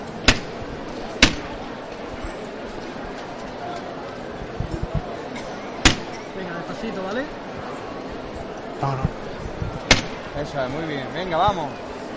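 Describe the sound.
A procession float, the misterio del Calvario, being lifted: a few sharp, loud knocks at uneven intervals ring out over a steady murmur of crowd voices, with people talking throughout.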